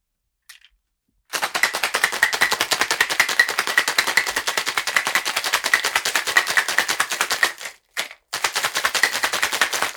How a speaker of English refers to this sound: One ounce of triple sec. One ounce of lemon juice. put the lid on your cocktail shaker and give it a good shake.